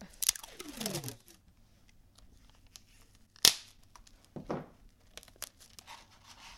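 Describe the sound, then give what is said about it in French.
Adhesive tape is ripped off a roll in a long, rasping screech, then a sharp snap and a few shorter crackling tugs, with no talking. “J'adore le bruit du scotch qui se.”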